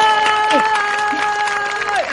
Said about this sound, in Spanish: aplausos en el set, aplausos en el set virtual.